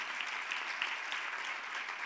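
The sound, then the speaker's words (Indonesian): Steady applause from a crowd, given for Jesus, a dense wash of many hands clapping at even loudness with no pauses, continuing throughout the short clip without any voices. “Berikan tepuk tangan bagi Yesus Tuhan kita.”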